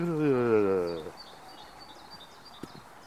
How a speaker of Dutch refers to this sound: Dat is koolmees. Dat is een fietspomp. Dat. Oh ja. Lijkt wel een fietspomp. Ja, ja. En dan een snelle. Dat is een koolmees.